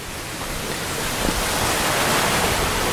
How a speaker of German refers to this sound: So, man hört hier jetzt das Geplätscher des Wassers. Ähm, wir sind gerade noch im Wald, mitten im Schwarzwald und laufen an einem Bach entlang. Ähm, viele große Steine liegen im Weg und ähm, das Wasser ist sehr, sehr klar, also frisches Quellwasser.